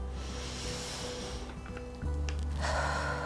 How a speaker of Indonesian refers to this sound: Caranya bagaimana? Kita menarik nafas panjang. Hembuskan. Tarik nafas panjang.